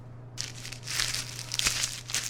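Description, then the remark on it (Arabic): A bag holding a box, an embroidered handkerchief, a red lipstick, loose coins and a pair of glasses is opened and crinkled, with continuous crackly rustling and a few sharper crunchy bursts over a faint steady hum, no voices. “طب دكتور تسمح لي أشوف الكيس؟”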